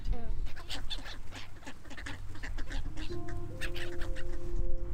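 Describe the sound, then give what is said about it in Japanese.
A busy chorus of waterbirds at a lakeside, with ducks and black-headed gulls calling over one another in quick, overlapping bursts after being fed, steady for the whole stretch, with some low outdoor rumble underneath. “水鳥もいっぱい今年は来ててじゃあ水鳥さんたちの声を聞いてみましょうどうですかいっぱい餌をあげられましたかうんいっぱいあげられこのこの水鳥さんたちは何という水鳥ですかカモとなんだっけなカモと何ゆりかもめ”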